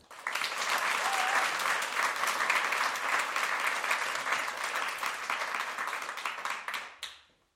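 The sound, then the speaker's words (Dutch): Sustained audience applause welcoming an invited musician guest, a dense steady wash of many hands clapping that holds loud for several seconds before tapering off quickly near the end. “En daar mogen jullie meteen een zeer daverend applaus voor geven.”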